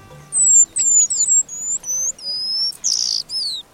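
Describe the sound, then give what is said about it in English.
A rapid series of high, sweet whistled notes and chirps, some sliding down in pitch, in a quick, continuous song of an eastern paradise whydah, a small finch found in East Africa, with no one talking. “A few times each year, the eastern paradise Whydah puts on its party clothes.”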